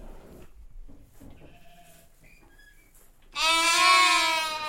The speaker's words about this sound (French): tout le temps que les moutons bêlent et du temps où ils ne ruminent pas. Toute la question est alors, est-ce qu'ils bêlent en attendant de ruminer ou est-ce que leurs bêlements sont autant de ponctuations dans un langage